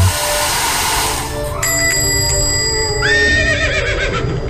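A horse whinnies loudly and at length in a dog grooming store, its shrill, wavering neigh rising and falling over the steady, roaring whoosh of a hairdryer used to dry dogs that runs throughout. No one speaks.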